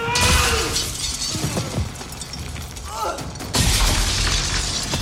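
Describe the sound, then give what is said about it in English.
Glass shatters in loud, crashing bursts as Arnie throws people through windows in a hospital film scene, a sharp smash at the start and another around the midpoint, with tinkling debris, heavy thumps and rattling in between. “And there's some punchy sound effects once Arnie starts throwing people through windows.”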